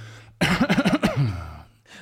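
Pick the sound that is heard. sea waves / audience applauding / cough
cough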